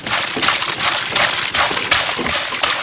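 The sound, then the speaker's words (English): Wet sloshing and splashing as cow dung is mixed with an equal volume of water in a biogas digester, churning in a steady rhythm of surges roughly twice a second. “Once enough has been collected, he adds an equal volume of water and mixes everything together.”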